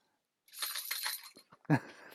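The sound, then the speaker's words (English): Metal chains clank and rattle in a busy jangling burst for about a second, followed by a single heavier clunk, fairly loud with no voices, used as a quiz buzzer. “the clanky chains.”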